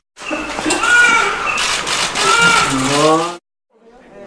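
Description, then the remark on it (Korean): A newborn baby, the first born in 2021, cries loudly just after midnight at a maternity hospital in one long, strained wail of about three seconds, its pitch rising and falling, before it cuts off, leaving only a faint trailing sound. “명시가 되자 우렁찬 아기 울음소리가 화면을 통해 병원을 가득 채웁니다.”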